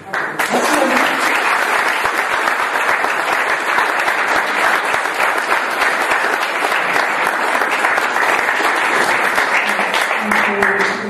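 Sustained audience applause after a speaker's talk at a conference, a dense, steady wash of many hands clapping at full volume for about eleven seconds without a break.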